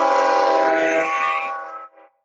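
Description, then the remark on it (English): A loud, sustained train horn blast with rich harmonic tones, holding steady for nearly two seconds before fading, followed by a brief short toot. “Here comes this fucking train again.”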